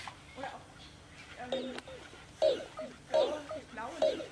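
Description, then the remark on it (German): Several short, synthetic-sounding bark-like yips from a robot dog pet simulation arrive in an irregular series, each a brief tonal burst over a low background hum, moderately loud. “Bellen ist ein Zeichen von, ähm, ein, soll eine emotionale Äußerung darstellen, nämlich ähm, eine, eine Freude dann auch.”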